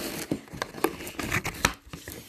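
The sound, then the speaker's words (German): Plastic packaging being torn and crinkled open, a series of sharp ripping and crackling bursts over a couple of seconds. “oh mein Gott, hier ist Plastik noch und jetzt können wir es öffnen.”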